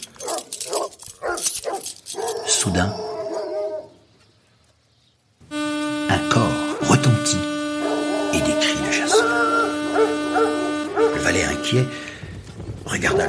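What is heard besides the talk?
dogs yapping and barking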